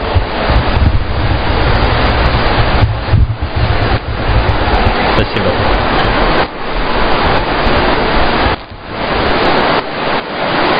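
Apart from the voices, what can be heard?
heavy rain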